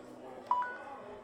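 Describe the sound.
A short electronic phone alarm beep sounds once, clear, followed by a fainter tone or two, over a low murmur of background voices.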